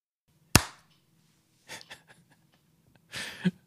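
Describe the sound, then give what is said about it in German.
One loud, sharp hand clap, made to clap in the start of a show, rings out and decays quickly, followed by a few soft breathy exhales and rustles in an otherwise quiet background. “Ah, ich habe uns eingeklatscht.”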